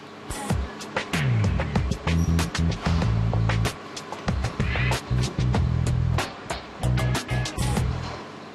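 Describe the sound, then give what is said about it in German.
Loud shoe factory hall machinery: frequent sharp metallic clanks and bangs over a droning, humming low motor tone, busy and continuous, with no voices. “In der Fabrikhalle ist es laut.”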